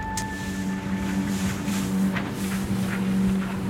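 A motorboat engine drones loudly and steadily as the throttle is opened wide after leaving the harbour of Muiden, the boat bouncing over the water toward an island, with rushing wind and water noise over it and occasional splashy bursts. No one speaks.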